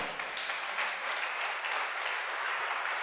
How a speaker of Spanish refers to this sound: Si lo vas a alabar a Dios, decirle al de al lado, ponele más onda tu aplauso, por favor. Dale fuerte eso, gloria a Dios.